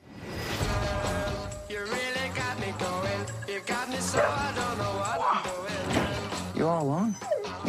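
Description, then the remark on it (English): A red dog named Boy, in the film Love and Monsters, whimpers and gives short, pitched yelps and barks, clear over a dense, steady background of other sound, with the whining rising and falling near the end. “That red dog looks remarkably Australian, I have to say.”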